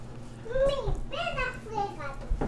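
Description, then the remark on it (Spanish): Young girls, the speaker's daughters, chatter and squeal playfully in the background as they play, not crying: a steady stream of excited high-pitched vocalizing with no clear words, ending with a soft thump. “las niñas están jugando ahí, no, no están llorando.”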